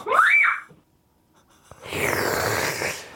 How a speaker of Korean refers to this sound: 이게 무슨 소리야? 짧고 굵게 두 번 비명을 외쳐주시고 계십니다.